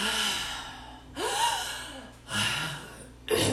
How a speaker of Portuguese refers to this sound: E agora que você sabe esse movimento, nós vamos por 15 segundos fazer aquela respiração mais rápida, sempre pela boca. Enche de ar e solta.